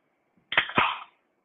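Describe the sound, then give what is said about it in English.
A can of Aha sparkling water cracks open with a sharp metallic click followed by a quick hiss of escaping fizz, fairly loud, lasting about half a second. “Uh, an an aha sparkling water.”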